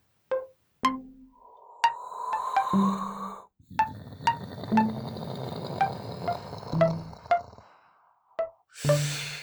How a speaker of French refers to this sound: Clarisse fait fondre un petit morceau de biscuit à la cuillère dans son bol.